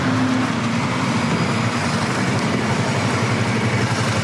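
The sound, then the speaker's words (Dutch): Dense, steady roar of busy street traffic, with cars and motorcycles passing in a continuous loud wash of engine and tyre noise, no voices. “als het lukt om hier de straat over te steken, dan kom je bij het station,”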